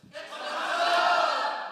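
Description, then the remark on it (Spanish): A crowd shouts the word "expansión" together in unison, a loud, sustained burst of many voices that swells and holds for over a second before easing off slightly. “Bueno, tienes que gritar expansión.”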